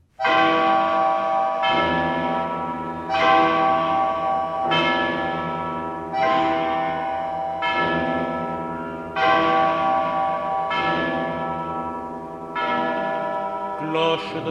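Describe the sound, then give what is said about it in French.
The large bells of Notre-Dame in Paris ring out in a steady sequence of rich, resonant strikes about every one and a half seconds, each tone swelling and lingering into the next, loud with no talking. “Notre-Dame à Paris, qui sonnait les glaces et les carillons, qui sonnait la joie et la peine, cloche de Notre-Dame à Paris, vous êtes vieille comme le monde, vous êtes pauvre comme la Seine”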